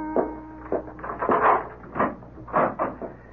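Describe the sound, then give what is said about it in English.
A door being opened to answer a caller, with a handful of short wooden creaks and clunks spread over a few seconds, fairly loud, with no voices. “Whoever was at that door did not mean to go away. I went to the door.”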